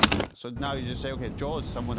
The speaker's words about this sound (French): Il ouvre alors un tiroir et sort une arme.